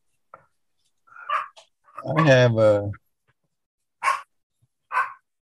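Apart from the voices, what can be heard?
dog barking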